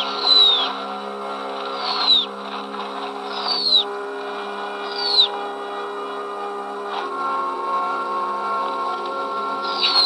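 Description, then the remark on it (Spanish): An owl gives short, high, descending cries, about four of them spaced a second or two apart, as it finally launches its attack on a live mouse bait stunned by the cold, over a steady low droning hum that runs throughout. “Tiene que ser sacudido para que se mueva y con la primera señal de vida, el búho por fin se lanza al ataque.”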